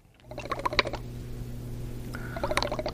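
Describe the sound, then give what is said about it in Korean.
Wet, gurgling bubbles like air blown through a straw into liquid, coming in two short bursts with a low rumbling undertone, fairly close and moderately loud, with no talking. “빨대로 부는 뭐 그런 소리나 아니면 배 꼬르륵 소리 두 개 다 맞는 걸로 하겠습니다.”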